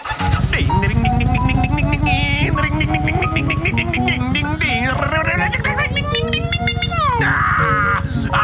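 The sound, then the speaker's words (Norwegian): A voice loudly imitates a motorcycle engine, a continuous buzzing drone with pitch that rises and falls like revving, lasting several seconds without a break. “I dag skal jeg ut og kjøre på den der, i den der motorsykkelen min!”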